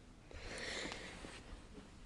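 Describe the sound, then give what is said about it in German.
A man snores faintly, a drawn-out, breathy rasp swelling then fading, followed by a shorter weaker breath, quiet with no talking. “Der schnarcht grad.”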